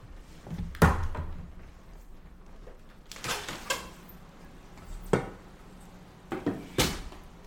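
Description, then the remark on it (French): A window being opened: a series of sharp clunks and knocks from latches and frame, with a brief scraping slide in the middle, spread out over several seconds with quiet between them. “Non, mais attendez, je vais ouvrir la fenêtre puis on va écouter ça ensemble, de la vraie pluie.”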